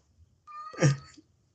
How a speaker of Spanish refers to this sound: Pinches gatos, güey, nada más que empieza a grabar y... te, te están cantando al oído.